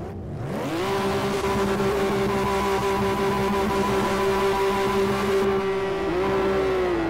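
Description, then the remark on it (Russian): Racing car engines in a video game race of 35 cars on the Nürburgring circuit in Germany rev up quickly, then hold a loud, steady high-pitched whine for several seconds, with a slight dip and rise near the end. No one speaks. “35 машин.”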